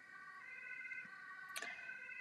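An ambulance siren wails steadily as ambulances pass by, its tone holding with slight wavering, joined briefly by a sharp burst of traffic noise near the end.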